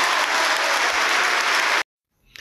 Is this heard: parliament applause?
yes